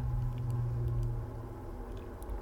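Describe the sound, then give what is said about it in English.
A steady low hum of road traffic on Route 309 drones on without pause, a continuous rumbling wash of passing vehicles with no voices over it, easing slightly partway through. “let's let the uh, incessant hum of traffic on 309 just kind of lull us on out of here.”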